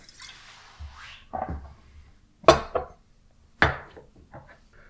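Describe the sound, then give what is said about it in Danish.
Chilled Stolichnaya (Stoli) vodka is poured into a glass: a brief liquid trickle and soft bottle handling, then two sharp glassy clinks with quieter knocks in between, no talking. “Så jeg hælder lige en glas op her.”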